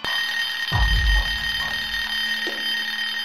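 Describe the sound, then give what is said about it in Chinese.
A mobile phone rings with a steady, bright electronic tone of stacked high pitches held throughout, while a low rumbling thud swells underneath around the first second and soft pulses recur. “突然，李军的手机铃响起，李军连忙打开手机，愣在原地，因为手机上显示的号码正是妹子。”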